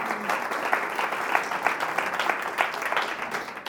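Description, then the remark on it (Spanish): A church audience during a sermon applauds steadily for a volunteer called to the front, many hands clapping in a dense, crackling wash that holds a fairly even level throughout, with no voices standing out. “¿Le vas a dar un aplauso al Esteban?”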